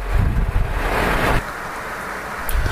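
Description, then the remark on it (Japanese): Heavy rain pounds on a car stopped mid-drive in a dense, continuous hiss with a low rumble underneath, louder for the first moment and then settling into a slightly softer steady downpour. “はい、というわけで雨がひどくて走行中喋っても間違いなく聞こえないと思ったんでですね、今止まって喋っております。”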